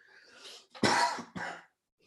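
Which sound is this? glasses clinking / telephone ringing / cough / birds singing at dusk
cough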